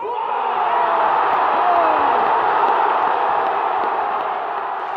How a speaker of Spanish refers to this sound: Dale campeón, grita la gente, se abrazan inmensamente, estudiantes cumple su sueño de jugar en la B Nacional.